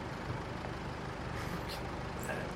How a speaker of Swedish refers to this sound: Då hör ni liksom ljudet från motorer utifrån. Ni hör från, från eh, gårdsplanen hur det verkar köra in ett gäng bilar här.